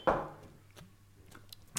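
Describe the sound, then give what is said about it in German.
Beer glasses knock against a plexiglass pane between two people as they toast, in one loud, hollow clunk that quickly fades, followed by a few faint small clicks and taps. “Zwischen uns ist übrigens eine Plexiglasscheibe, gegen die Natürlich. wir anstoßen.”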